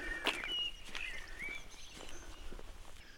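A common blackbird sings fluty, warbling phrases at one o'clock, clear over a quiet outdoor background with faint footsteps.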